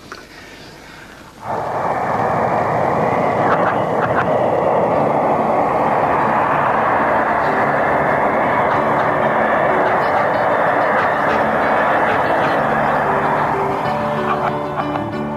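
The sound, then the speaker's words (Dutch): A steam train runs on toward a bridge with a loud, steady, rushing roar that rises sharply after a quieter opening second and holds at a constant level to the end. “Ons gaan nou eers 'n entjie aan en dan gaan ons oor die brug handel of so.”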